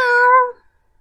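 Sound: cat meowing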